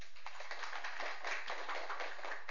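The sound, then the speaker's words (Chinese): An audience at a lecture applauds steadily for a few seconds to welcome an invited professor, a dense patter of many hands clapping at once, fairly even in loudness with no voices over it. “呃，我们以掌声热烈欢迎。”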